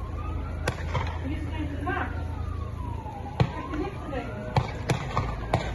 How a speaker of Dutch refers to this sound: De achtvolging eindigde in een weiland bij Broek in Waterland, waar meerdere keren werd geschoten. Zoals te horen is op een video gemaakt door een van de omwonenden.